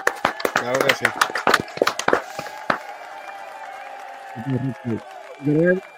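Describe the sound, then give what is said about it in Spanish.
A short burst of scattered, sharp hand claps from a few people, given as applause for Rey J, irregular and fading out after about three seconds, with voices talking over and after it. “De verdad que sí, yo quisiera que le diéramos un aplauso, brother, porque este hombre se lo merece.”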